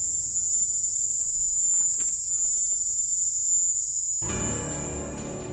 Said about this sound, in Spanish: Sin embargo, el ruido de la extraña chicharra cubana seguía sonando. ¿Qué era aquello?